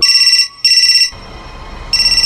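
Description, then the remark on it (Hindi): A mobile phone, plugged in to charge inside a morgue, rings out in loud, bright electronic bursts: two close pulses, a pause filled with low background noise, then the tone starts again. No one speaks. “दिलीप अपने फोन को चार्ज पर लगाकर दरवाजे की तरफ आगे बढ़ ही रहा था कि चार्ज पर लगा उसका फोन अचानक से बज उठा”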